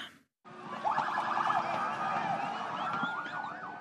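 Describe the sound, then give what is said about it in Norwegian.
Several ambulance sirens wail at once as ambulances arrive at Mexico's largest fireworks market after explosions, people fleeing in panic; rising and falling tones overlap loudly against a dense background of crowd and street noise, continuing steadily without pause. “Mens ambulanser ankommer fyrverkerimarkedet, løper folk i panikk bort fra stedet.”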